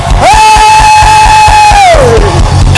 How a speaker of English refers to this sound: Then suddenly you start shouting. I said, suddenly you start shouting